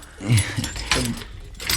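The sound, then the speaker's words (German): Keys jangle and scrape as a door is locked, with a few metallic clicks and a dull thud amid bright, rattling high tones, heard alone without talking. “Weshalb schließen Sie die Tür ab?”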